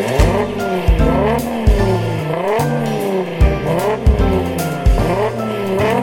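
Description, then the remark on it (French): A car engine revs up and down repeatedly, pitch sweeping as it accelerates and shifts, with tires squealing and skidding, loud and continuous, no talking. “Pour les amateurs de voitures, il y a des sons incroyables, incomparables, inoubliables.”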